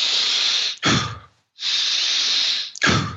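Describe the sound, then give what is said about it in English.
Two forceful, deep breaths of Wim Hof breathing, each a long hissing inhale followed by a sharp, rushing exhale, repeated in a quick steady rhythm with a brief pause between cycles; each cycle runs about 30 breaths. “I do a couple yep. cycles of Wim Hof breathing. You basically do that.”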